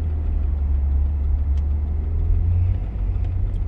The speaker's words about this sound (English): Also, please don't swerve when we get up here. Just like, pull, please don't slow up. Okay, I'm gonna pull up next to the silver car.